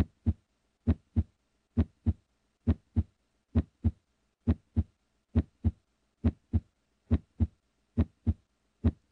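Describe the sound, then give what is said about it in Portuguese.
A steady heartbeat thumps in a regular lub-dub rhythm, each pair of deep beats repeating about once a second, heard alone with nothing else around it. “E através dos batimentos cardíacos e da música, você começa a se sentir parte de algo, de uma tribo, de um grupo, de algo maior, que te contém, ao qual você pertence”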